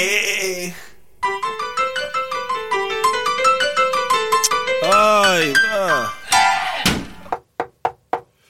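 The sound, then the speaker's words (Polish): A melodic, sung-sounding passage fades out, then four sharp, evenly spaced knocks on the door of a lawyers' office ring out clearly at the very end. “Puk, puk, czy to zespół adwokacki Dyskrecja?”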